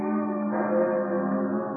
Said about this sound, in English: And bells, bells tolling morning.